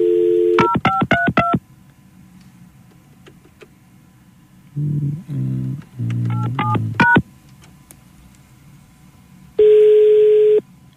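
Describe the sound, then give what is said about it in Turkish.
A quick run of telephone keypad tones as someone dials to call a radio listener again, each a short crisp beep, followed by a pause, then a steady tone burst and another series of rapid dial beeps, ending with a longer held tone. “Kuvvetle muhtemel o da biz arıyor. Bir kez daha arayacağım.”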